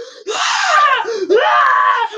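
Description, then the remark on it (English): A voice imitates a frightened scream at a single wasp at a barbecue: two long, shrill, strained shrieks back to back, loud, the second starting right as the first breaks off. “just screaming. one wasp.”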